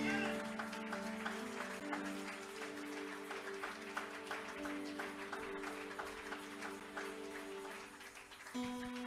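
An audience applauds and acclaims: dense, steady clapping from many hands runs through the whole stretch, with sustained held tones beneath and a brief swell near the end.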